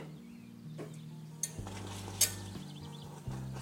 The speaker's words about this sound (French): En fouettant, ça va raviver un petit peu les bulles. Hein. Vous entendez On fouette, on fouette. Et là, on est en train d'homogénéiser les deux parties.